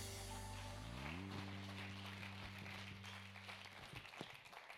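Steady audience applause fills the room, a dense wash of clapping heard alongside a sustained low musical chord that holds and then fades out partway through.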